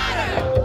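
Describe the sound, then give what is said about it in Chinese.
A brief burst of a Black Lives Matter protest crowd chanting together, many raised voices shouting the slogan "Black Lives Matter" in unison, loud and steady with no pauses. “刚你听到的是 BLM，Black Lives Matter，黑人的命也是命的运动抗议声。”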